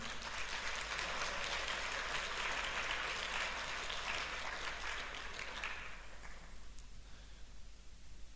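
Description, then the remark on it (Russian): An audience gives the Lord sustained applause, a dense crackle of many clapping hands that holds steady for several seconds and then thins out and fades toward the end. “Ты можешь дать Господу аплодисмент.”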